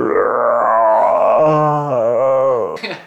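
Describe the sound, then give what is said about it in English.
A man imitates a lion's grunt with his voice, like a lion on the Serengeti plains: one long, low, rumbling groan that wavers in pitch for about three seconds and ends in a short breathy burst. “and at the absolute climax point, one guy did just, you know, it looked like a lion out on the on the Serengeti plains that went.”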